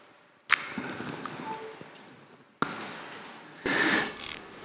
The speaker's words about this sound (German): Und es macht so ein komisches, schönes Geräusch, wenn es eingesteckt wird ganz leise. Könnt ihr es hören? Ganz leise, ganz leise, ganz leise.